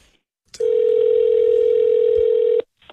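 One steady electronic telephone ringing tone, heard through the line, of a call to Brian Pellister's office in Manitoba answering a classified ad in Le Devoir, sounds loud and clear for about two seconds, then cuts off into silence. Nobody speaks.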